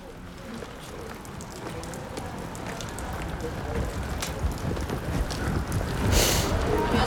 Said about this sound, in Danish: Det er totalt meget regnvejr på Frederiksberg, og nu er jeg lige kommet ud af retten.